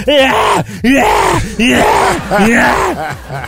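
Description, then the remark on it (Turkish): A man loudly imitates heavy, labored panting like after climbing 10 stairs, with about four long, groaning breaths in a steady rhythm, voiced. “Abicim ben 10 tane merdiven çıkınca bak böyle soluyorum.”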